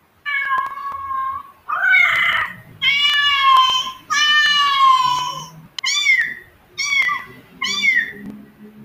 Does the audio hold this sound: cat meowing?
yes